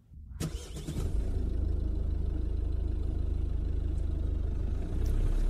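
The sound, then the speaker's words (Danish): A car engine cranks and catches after a brief silence, then settles into a steady low rumble that swells slightly near the end as the car pulls out of Korsør station, turning left toward Tornborgvej. “Og vi kører ud af stationen, og så kører vi til venstre her, ud mod Tornborgvej.”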